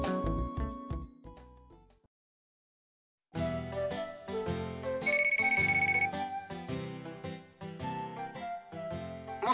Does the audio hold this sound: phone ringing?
yes